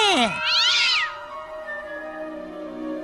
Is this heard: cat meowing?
yes